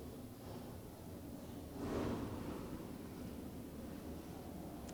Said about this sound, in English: I guess we have a lot of motorcycles in town. We forgive you for the noise. It's fine.